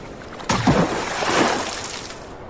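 A boat capsizes with a sudden loud splash, followed by a couple of seconds of rushing, churning water and surging waves, with no voices.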